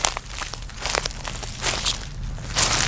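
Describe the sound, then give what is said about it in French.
Footsteps crunch steadily through leaf litter and twigs on a forest floor, a slow walking rhythm of soft, crackling treads, with a low background rumble. “Imagine-toi marcher dans la forêt.”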